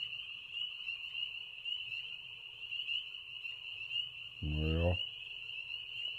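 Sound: frog croaking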